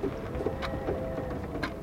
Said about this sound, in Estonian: vihm rabistas ühtlaselt vastu kõrtsi vitraažakneid ja nüüd kostis aeg-ajalt ka kauged kõuekõminad.